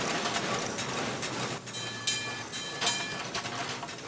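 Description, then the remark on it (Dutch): Metal wheels of a very old small mine cart, a kind of little train wagon, rattle steadily along rails, a continuous clattering rumble with a few sharper squealing scrapes, fairly loud. “De kaart is het, het eigenlijk is een soort treinwagonnetje, hè? De wieltjes ervan.”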